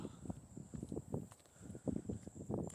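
footsteps walking

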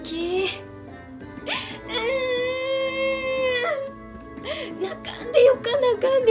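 person crying and wailing

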